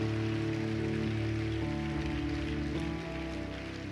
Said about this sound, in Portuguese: Vamos aplaudir bem alto o nome de Jesus.